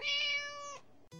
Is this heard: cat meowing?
yes